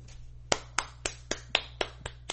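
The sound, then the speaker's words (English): A person claps their hands about eight times in a quick, steady rhythm in applause for Eniko Hart, each clap sharp and bright, over a low constant hum with no voices. “thank you Eniko good job I you don't why you not clapping you don't applaud her too”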